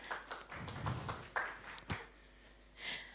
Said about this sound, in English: that sounded like a wee bit of a pity clap, didn't it? wasn't as celebratory as I was imagining in my head.